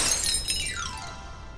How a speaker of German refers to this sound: Der Esel schrie, der Hund bellte, die Katze miaute und der Hahn krähte dann stürzten sie alle durch das Fenster in die Stube hinein, dass die Scheiben knirrten.